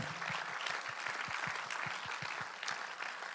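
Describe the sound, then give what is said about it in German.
A crowd applauds the fact that the Gideons have distributed over two billion Bibles, with dense, steady clapping that holds at an even, moderate volume for a few seconds and has no voices over it. “Lass uns mal für diesen Fakt einen Applaus geben.”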